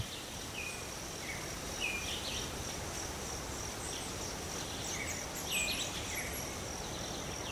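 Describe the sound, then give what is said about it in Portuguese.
Scattered bird chirps and short calls ring out over a steady, high insect drone and soft rushing wind in the tree canopy of a preserved forest on the border of Rio de Janeiro and São Paulo states, Brazil, in March. No one speaks. “Aqui, os pássaros cantam tranquilos e o vento balança as copas das árvores que se espalham a perder de vista.”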